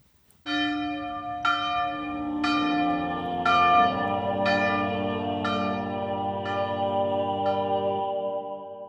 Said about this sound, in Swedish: Vår mest sakrala jingel förkunnar att det har blivit dags för Sjunde himlen